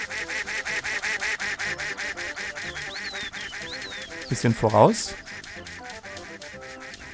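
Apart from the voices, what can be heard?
video game duck quacking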